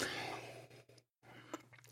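A soft slurping sip of the last of a coffee, a breathy rush that trails off into a brief silence, followed by quieter wet mouth sounds and faint swallowing clicks.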